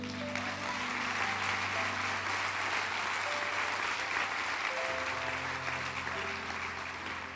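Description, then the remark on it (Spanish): A church audience applauds God steadily for about seven seconds, a dense, even wash of clapping that never lets up, with sustained low instrumental tones humming underneath. “Dar un aplauso a él.”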